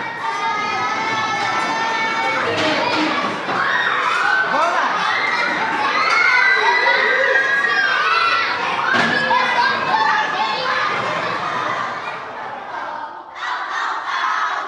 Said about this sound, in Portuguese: A algazarra era em torno de uma mesa de pebolim.